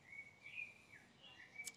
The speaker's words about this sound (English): But joy comes with the morning, with the birds. Joy comes in the morning